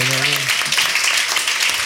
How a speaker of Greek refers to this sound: Ένα χειροκρότημα εδώ. Ένα χειροκρότημα στο παιδί, μπράβο.